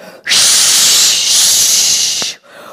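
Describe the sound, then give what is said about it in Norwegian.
A voice imitates the wind of a terrible storm with a loud, sustained whooshing hiss lasting about two seconds, steady, then cutting off abruptly into quiet. “Og så hørte de plutselig lyden av akkurat som det er en forferdelig storm.”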